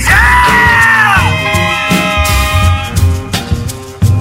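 A person yells loudly in a long, sustained cry, the voice swooping in pitch at the start, with a noisy, crowd-like backdrop and a few sharp bursts near the end.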